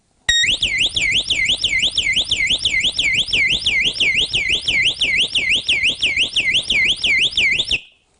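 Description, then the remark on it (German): A 110 dB burglar alarm siren with a built-in backup battery blares continuously, its shrill electronic tone rapidly warbling up and down in a steady repeating cycle, loud and unbroken for about seven seconds before cutting off abruptly. “Und kann sogar, wenn er angeschlossen ist, was im Normalfall sehr so ist, den Krach machen.”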